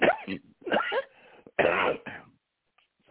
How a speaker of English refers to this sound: Uh, bourbon's not helping the cough.